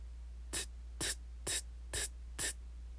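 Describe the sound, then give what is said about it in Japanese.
A voice repeatedly pronounces the voiceless "t" of the Japanese ta-row, made by touching the tongue to the base of the gums behind the upper teeth and releasing it: five crisp, breathy bursts spaced evenly about half a second apart, fairly loud, with no other speech between them. “これが T のシーンですねこの「t」というのは上顎の歯茎歯の裏側の付け根のところにベロ舌をひっつけてそこからこれを外して”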